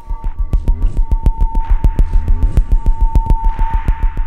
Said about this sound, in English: The body is creating all these electrical variations that are translated into notes that go into all those synthesizers. So the music is being executed and written in real time by the body